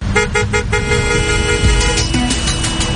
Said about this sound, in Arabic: في ناس الله يهديهم هوايتهم يا جماعة أنهم يدقوا بوري تمام أو آه، خليني أقول آه، آه، يعني إخواننا الشوام يقولوا بيزمر علي تمام يعني في ناس هوايتهم أنهم يدقوا البواري هذه مجرد هواية لا في زحمة ولا في أحد قدامه ولا في أي حاجة